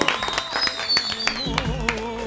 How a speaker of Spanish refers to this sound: Recibamos con un aplauso